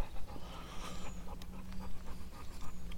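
A dog pants in a children's play park, in quick, steady breaths that run through the whole stretch, with a low constant hum in the background and no voices.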